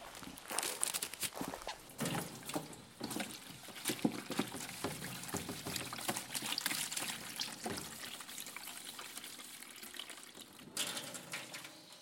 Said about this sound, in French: on va enlever les gants et puis on va faire euh, la vaisselle.